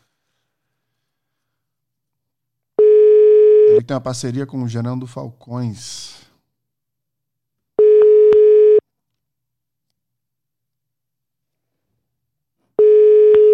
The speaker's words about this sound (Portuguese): Eu queria ligar para ele aqui, vamos ver se ele consegue atender.